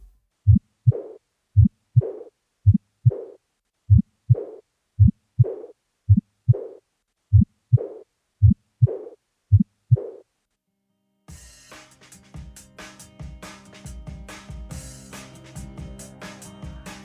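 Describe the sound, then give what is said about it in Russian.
Steady heartbeat heard through a stethoscope, each lub-dub followed by a soft, quiet whooshing heart murmur, best heard over the second to fourth left intercostal spaces, repeating about fourteen times over ten seconds before music takes over. “Эти два шума лучше всего выслушивать на промежутке от 2 до 4 левого межреберия.”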